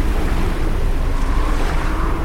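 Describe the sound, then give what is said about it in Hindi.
Steady roar of ocean surf at the seashore of the great sea spanned by the Nal Setu bridge toward Lanka, a dense continuous wash of breaking water with a gusty, wind-buffeted edge and no clear pauses between waves, no voices present. “सीते उधर देखो लंका तक पहुंचने के लिए इस विशाल सागर पर नल नील के सहयोग से हमने ये सेतु निर्माण किया जिसे सब नल सेतु के नाम से जानते हैं”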